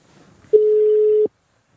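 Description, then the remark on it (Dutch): A single ringback tone on an outgoing phone call to a contest winner, a steady electronic hum lasting about three-quarters of a second, clear, after a faint murmur of background noise. “Wij gaan iemand bellen. Ik zou zeggen, laat de telefoon maar overgaan.”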